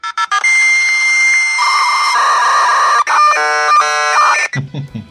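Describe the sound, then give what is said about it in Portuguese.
A computer's dial-up fax modem card connecting: quick chirps, then long steady whistling tones that shift into warbling, buzzing screeches before cutting off abruptly. Loud, with no voices. “a placa de fax modem do computador”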